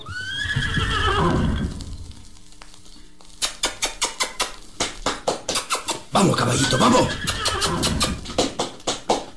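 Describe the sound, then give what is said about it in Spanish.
A horse whinnies loudly with a wavering, falling cry as it is being hobbled, followed by a quick run of sharp, rhythmic hoof clops on hard ground, briefly joined by another snorting neigh. “Eh, parece que el caballo está armado. Me están maniando la bestia.”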